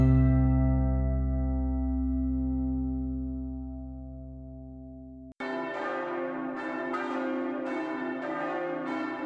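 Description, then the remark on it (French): A single deep church bell strike rings out and slowly decays, then a denser peal of several bells bursts in abruptly, clanging continuously and loudly with no voices present; bells ringing at 11 a.m. on 11 November 2018 in France, as they rang on 11 November 1918. “Il est 11 h Les cloches sonnent à l'imbre.”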